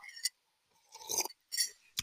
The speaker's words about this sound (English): Hold on a moment because I got to sip my tea.